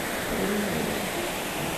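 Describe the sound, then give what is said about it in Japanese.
A small waterfall at a tourist spot flows steadily, a continuous even rush and hiss of falling water that fills the short moment without pause or change in loudness; a thin mist hangs over the water surface. “あそしてねあの水でね水面が煙ってるんですよねなんかちょっと薄い霧みたいなのが小さな滝もあるのでそのせいでね”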